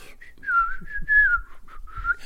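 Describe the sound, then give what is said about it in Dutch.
A person whistles a short baroque-style melody, a clear tune of several gliding notes with brief breaks between phrases, over faint background noise. “En, die was altijd van die barokmelodietjes aan het fluiten.”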